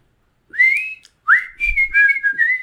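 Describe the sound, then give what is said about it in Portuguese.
Someone whistles a short melody recalled from a song's whistled part, in two phrases, the first a single sustained rising note, the second a run of gliding notes at a fairly high pitch, clear and with no talking. “E tem assovios, né? Como é que é o assovio agora que esqueci?”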